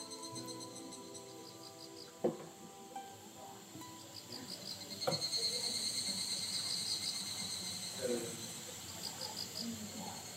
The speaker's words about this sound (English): This is the sound of the densely forested Hida province, the northern portion of Gifu prefecture in the center of Japan. The mountainous region has roughly 52 kilohectares of natural forest